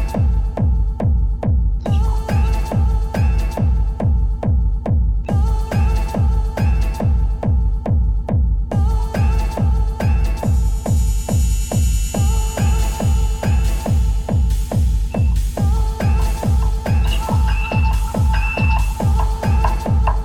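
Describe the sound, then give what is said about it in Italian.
Loud dance club music with a steady, thumping four-on-the-floor kick drum, pulsing synth chords and crisp hi-hats driving along continuously, with no voices. “dai, facciamola, facciamola sentire, un, solo, solo, un secondo così ci commuoviamo un po' e mm, pensiamo alle discoteche che sono chiuse non possono far sentire queste meraviglie della, della, della cultura mondiale.”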